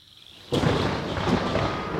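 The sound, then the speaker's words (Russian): A quiet hiss gives way to a sudden swell of broad, rumbling noise of distant thunder rolling in with falling rain, sustained and fairly loud for the rest of the moment. “Женщина с совиной головой улыбнулась, вперилась в Дарю взглядом, и они о чем-то долго говорили далекими раскатами грома и падающим дождем.”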